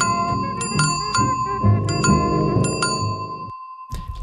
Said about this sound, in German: Das war ein Jingle.